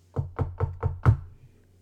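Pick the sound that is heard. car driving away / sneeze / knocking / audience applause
knocking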